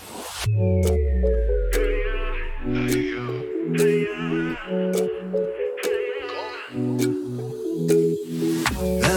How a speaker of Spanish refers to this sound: a hacer un pequeño break, ¿no es cierto?, a escuchar música